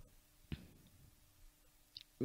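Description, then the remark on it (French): A couple of sharp, dry clicks as a woman clicks a ballpoint pen, one crisp snap followed later by a fainter tick, set against a quiet, hushed background. “Elle est là avec vérité, son stylo, vraiment, elle est là, clac, clac.”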